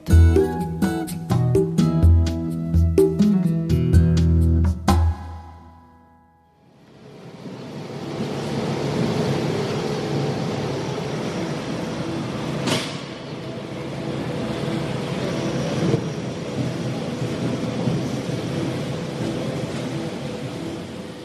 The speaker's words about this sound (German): Es ist der Tag nach dem Berner Stadtfest im Juni. Auf dem Bundesplatz, man hört, es wird aufgeräumt. Man ist am 8. Uhr am Morgen gerade dran, die große Musikbühne abzubauen.